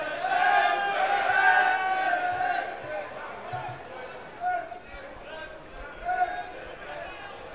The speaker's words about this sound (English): Gets a crowd in good voice already.